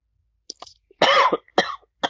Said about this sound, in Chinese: 哦，sorry，我呃咳嗽一下，可能太激动。